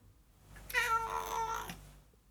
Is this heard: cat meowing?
yes